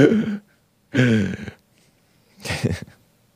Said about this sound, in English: Speaking of shaky voices, right? That gasp.